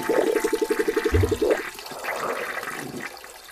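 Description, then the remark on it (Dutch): A toilet flushes with a loud rushing gush of water and a rapid gurgling rattle at the start, then the swirl settles into a softer, steady hiss as the bowl refills. “Ja, ik moest mezelf even helpen op de wc.”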